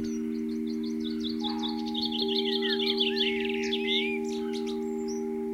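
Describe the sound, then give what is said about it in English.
Small birds chirp and twitter in quick repeated bursts, busy and overlapping, as they feed at a bird table where food was put down, picked up by a microphone placed on top of the table, while a steady low electrical hum and a thin whine run underneath throughout. “So I ran outside, frightened them off put some more food down, but put my little microphone on top of the bird table and then ran back indoors, set it recording.”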